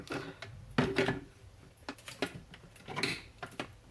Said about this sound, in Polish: Wstawiam pojemnik do na miejsce, w którym powinien być, czyli z tyłu ekspresu